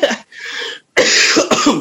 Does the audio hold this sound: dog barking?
no